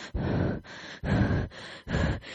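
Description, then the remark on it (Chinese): A person imitates their nervous breathing through a face mask during a doctor's eye procedure: five loud, airy breaths alternating in and out in a quick, steady rhythm, muffled and hissy, with no talking. “那是因为我很紧张，我双手就是两只双手整个紧握到一个不行，然后因为戴着口罩嘛，然后我的呼吸声是这样，”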